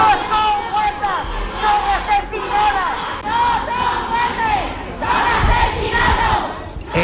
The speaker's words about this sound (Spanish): En las calles de Andalucía, de toda España, se celebraban este 25N numerosas manifestaciones.